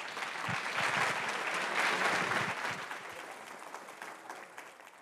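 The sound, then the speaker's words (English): An audience applauding steadily to thank the panelists after a session, a dense wash of clapping that holds strong for a few seconds and then gradually thins and fades. “You've heard how important it is, so go vote, and please join me in thanking our panelists.”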